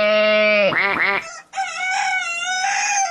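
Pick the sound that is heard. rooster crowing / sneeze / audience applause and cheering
rooster crowing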